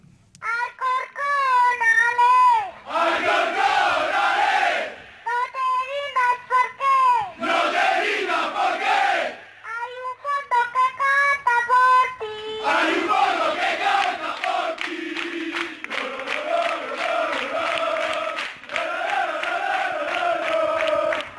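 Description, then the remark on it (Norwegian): A young girl's high, strained voice leads a football supporters' chant in rhythmic bursts, with a crowd of supporters roaring the lines back after her, loud throughout. “de har en utrolig søt eh, supporterleder, eller oppsanger, som vi kan høre hvordan, ja, hvordan hun høres ut.”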